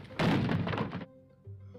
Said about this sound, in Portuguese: E foi só o padre João seguir em direção à pia que as portas da igreja se abriram com grande violência.